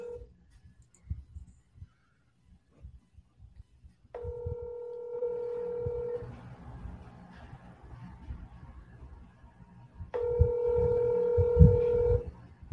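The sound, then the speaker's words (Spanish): An outgoing phone call rings on the line: two long, steady electronic ring tones, each about two seconds, separated by a pause, over a low background rumble with no talking. “Estamos llamando el mundo, estamos llamando el mundo. Vamos a ver se contesta.”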